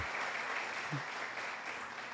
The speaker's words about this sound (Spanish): Y yo quiero que le dé un aplauso al Señor.